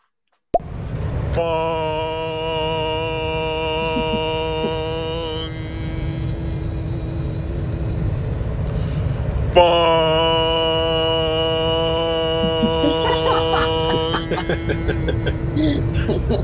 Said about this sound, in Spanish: Parecen más campanadas que una bocina, ¿eh? Bueno, esta era la bocina de anunciar que íbamos a zarpar, oye.